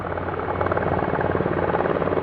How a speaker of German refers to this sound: Hinter dem Gebäude hören wir das Röhren von Hubschrauberrotoren. Dann wird die Maschine sichtbar, dreht ab Richtung Tiergarten.